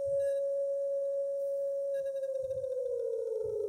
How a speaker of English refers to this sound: It's a USA's. Very average alarm. 5 out of 10. Sounds like a computer battery dying.